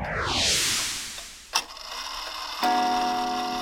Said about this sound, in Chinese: 这是时钟的钟摆还有撞钟的声音。